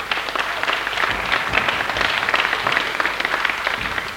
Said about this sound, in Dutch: Ja, u, dat, dat applaus kwam een beetje aarzelend dan zo.